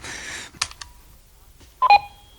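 A brief hiss and a couple of mechanical clicks, then short electronic beeps as buttons on an answering machine are pressed to start playback. Fairly loud, with no voices.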